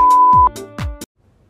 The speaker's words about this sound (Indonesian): Please enjoy my podcast after the beep.